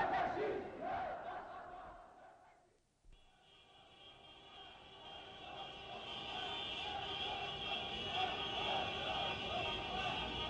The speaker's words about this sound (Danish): Paris til gengæld lyder der alt andet end jubel. Demonstrationer og moddemonstrationer afløser hinanden. Den ene drager gennem arbejderkvartererne og synger og råber om Batagol, ned med det gulv.